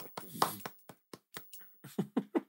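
Brief scattered applause: about a dozen sharp, loud hand claps in an uneven rhythm, a few overlapping early on, from what sounds like only a couple of people clapping.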